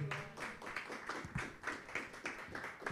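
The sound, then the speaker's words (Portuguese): A crowd claps steadily in applause to the Lord Jesus, many hands overlapping in a dense, continuous patter with rhythmic pulses, loud and sustained with no voices on top. “Aplauda mais forte o Senhor Jesus, amém?”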